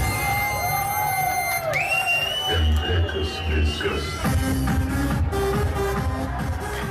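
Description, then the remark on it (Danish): A rowdy party crowd cheers and whoops over thumping dance music, with rising whistles and shouts cutting through the dense, loud din, at a disco aboard a former ferry docked at the quay in Aarhus, Denmark. “MF Broen var diskoteksfærge.”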